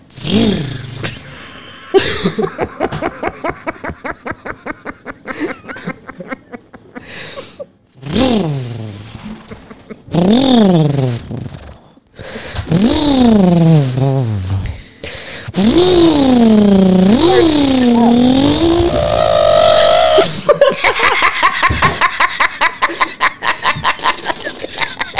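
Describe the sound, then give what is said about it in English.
A person vocally imitates a chainsaw starting: choppy sputtering pulls first, then loud whining revs that swoop up and down in pitch, ending in a sustained buzzing roar. “Can you do your chainsaw?”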